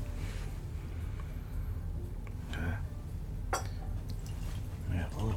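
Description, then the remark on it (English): A couple of small drops of water plink into a whiskey glass, brief and separated by a second or so, over a steady low background rumble. “water.”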